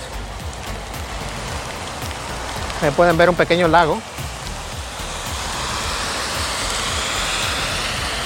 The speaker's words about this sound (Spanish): Tampoco sé si me puedes escuchar porque el viento viene fuerte en contra.